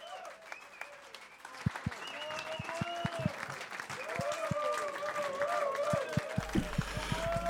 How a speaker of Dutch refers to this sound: Applaus